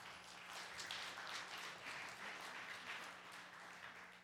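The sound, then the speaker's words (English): Steady applause from an audience, a dense crackle of many hands clapping at an even, sustained level for several seconds with no voices over it. “Give yourselves a, round, a hand of applause.”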